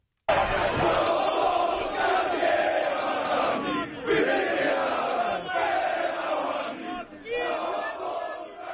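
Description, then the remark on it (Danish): A large crowd of an anti-LGBT group in Poland chants loudly in unison that all of Poland sings with them and that gays must get out. The voices merge into a dense, continuous roar of rhythmic shouted phrases with brief dips between them. “Ja, det de råber. Hele Polen synger med os, bøsser, I skal fuck af.”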